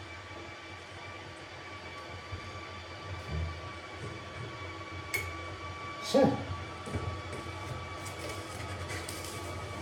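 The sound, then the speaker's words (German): An electric kettle heats water with a steady, rumbling hiss and a faint whining hum, broken by a few soft knocks and a brief click; a voice speaks once, briefly. “Momentan mache ich Kabeltrommeln, also einmal die Zylinder einlegen und ja, ja, Wasserkocher.”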